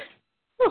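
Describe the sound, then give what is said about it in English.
A single sharp sneeze bursts out after a brief silence, following the fading tail of an earlier vocal sound. “Okay. Bless you.”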